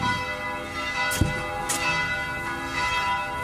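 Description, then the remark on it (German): Church bells ring continuously on a Sunday morning at 9 o'clock, signalling the start of the church service, their rich sustained tones overlapping in a dense, resonant peal at steady loudness, with a couple of brief clanks near the start. “Die Glocken machen penetrantes Glockendienst, äh, nicht Glockendienst, Gottesdienst, äh, Hinweis”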